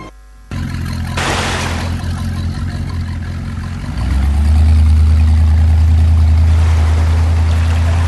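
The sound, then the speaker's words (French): A motor engine kicks in and drones steadily, then revs up louder and deeper partway through as the vehicle accelerates away to outrun the pursuing Nitans, holding a strong rumble to the end. No one speaks. “Avec le moteur, nous allons les distancer.”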